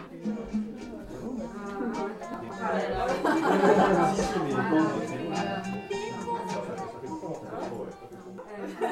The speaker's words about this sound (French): Tout d'un coup, il y a du bruit et du monde partout.